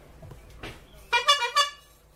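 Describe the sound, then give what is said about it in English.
A bicycle horn attached to a bike's handlebars honks three quick times in a short burst, bright, after a bit of faint handling noise. “Let me hear that horn.”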